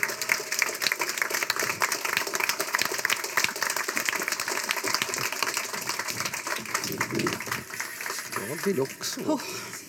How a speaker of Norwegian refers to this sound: nå vil psykiateren, som jo vet at man kan få traume hvis man ikke blir anerkjent nok, har forlangt at dere skal gi ham og Jørn Lierhorst og Marte Spurkland en enorm applaus. Ta godt imot Pål Grøndal, Jørn Lier Horst og Marte Spurkland.